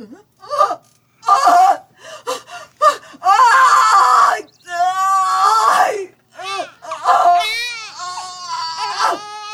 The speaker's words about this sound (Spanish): Carmencita y Rafaelito corren al escuchar el llanto del bebé.